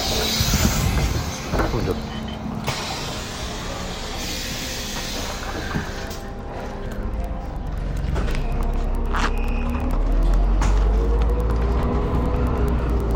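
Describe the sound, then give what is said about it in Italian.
Ride inside a moving bus: a steady low engine drone and road rumble that swells midway, with occasional rattles and clunks and faint murmuring voices underneath. “Ecco, sono sull'autobus.”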